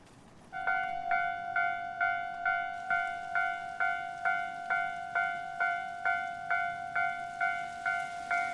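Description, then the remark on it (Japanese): A railroad crossing bell sound effect clangs steadily in a regular, evenly spaced rhythm, about two strikes per second, loud, over a faint background hiss. No one speaks. “踏切が鳴っていて、雨の中、電車を待っています。”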